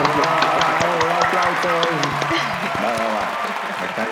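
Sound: applause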